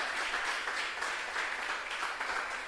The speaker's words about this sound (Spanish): ¿Cuántos pueden darle gloria a Dios? Porque en este camino triste de la vida, dele, dele un fuerte aplauso a Él.